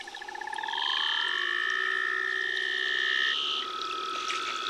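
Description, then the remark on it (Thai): Eerie underwater calls of seals resident in Antarctica: a rapid pulsed trill that glides into long, sweeping whistles, some rising and some falling, ringing loud and continuous for several seconds with no one talking. “สำหรับสัตว์ที่อยู่ประจำถิ่นณนะทวีปแอนตาร์กติกาหรือขั้วโลกใต้ นะครับ ก็คือตลอดทั้งปีอาศัยหากินอยู่ที่ขั้วโลกใต้เท่านั้น ก็จะมีในกลุ่มของแมวน้ำ”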